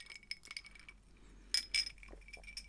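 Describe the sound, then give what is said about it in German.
Someone drinks a cold drink from a glass: several bright, ringing glassy clinks, like ice knocking the sides, with soft sipping and swallowing noises between them. Quiet overall, no talking. “Dazu gibt es einen wunderbaren äh, Schluck aus, von dem erfrischenden Kaltgetränk”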